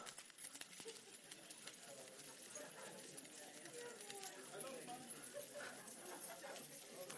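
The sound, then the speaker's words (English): A dense, bright shimmer of many small metallic jingles fills the space as a crowd at a morning gathering holds their keys up high and jingles them all at once, steady and continuous with faint murmuring underneath. “If anyone has any keys on them, would you just take them out, please, of your uh, bag, coat, pocket, and just hold them up high, give them a little jingle.”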